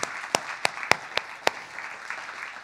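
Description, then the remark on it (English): An audience applauds people who have just accepted Christ, in a steady, dense wash of clapping, with several sharp, louder individual claps standing out at irregular moments. No clear cheering voices come through. “Give it up for those people that accepted Christ.”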